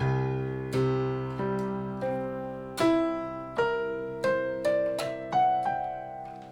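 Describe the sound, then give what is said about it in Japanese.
Sustained electronic-sounding tones, the harmonic overtones of a low C up to the 12th harmonic (including D, E, F sharp and G three octaves up), enter one after another, each higher overtone joining the held notes until they ring together as a bright, shimmering chord of stacked harmonics; no one speaks. “はいこういう感じで音が鳴っているっていうことですねこの気温の一番低いこの銅を鳴らした時にさっきみたいな音が同時になってるよっていうことです”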